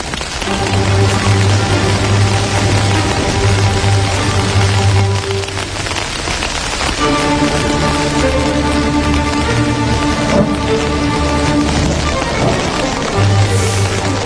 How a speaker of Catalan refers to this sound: Doncs comença a ploure bots i a barrals aquí a Territori 17, però no ho mhm. fa físicament, és a dir, ni a dins de l'estudi ni a fora.